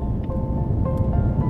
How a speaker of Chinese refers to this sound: 飞机的引擎轰隆作响，又是要准备离开的时候了。